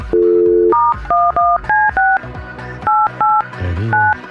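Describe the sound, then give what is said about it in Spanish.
A phone number being dialed: about ten steady two-pitched beeps, the first held longer, then short evenly spaced tones with a brief pause partway through. Loud and clear, with no talking. “Háblale, por favor, entonces eh, vamos a marcarle.”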